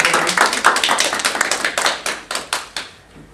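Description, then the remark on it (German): A single person claps their hands in a quick, slightly uneven run of sharp claps that slows and thins out toward the end, with no talking. “Ich klatsche”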